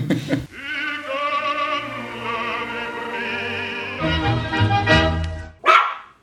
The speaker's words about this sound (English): oh, that's the that's our dog.